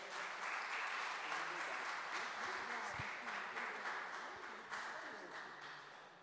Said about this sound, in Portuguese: Aplauda o Senhor.